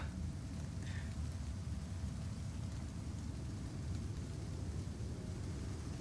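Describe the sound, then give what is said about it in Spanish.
A played rain-ambience track fills the whole stretch, a continuous dense hiss with a heavy low rumble underneath, fairly soft and unbroken, with no voices over it. “Voy a bajar un poquito la lluvia, que está alta.”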